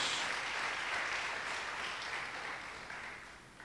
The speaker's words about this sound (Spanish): O oh, dele fuerte ese aplauso a Dios.